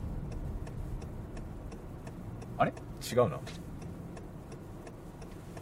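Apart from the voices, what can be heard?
car interior noise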